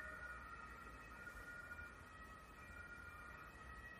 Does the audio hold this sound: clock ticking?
no